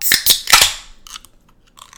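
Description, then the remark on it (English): A can of 7.2% IPA beer cracks open: three quick, sharp metallic snaps, then brief bursts of fizzy, hissing carbonation. No voices are heard. “Oh yeah, that's a that's a clean crack.”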